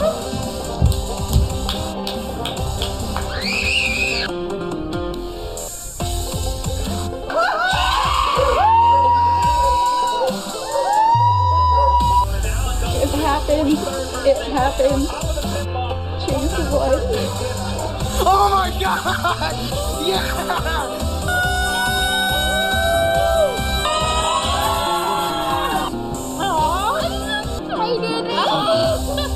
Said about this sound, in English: So that's just a sample. And Steve and I heard the crowd; they went bananas when you took the lead.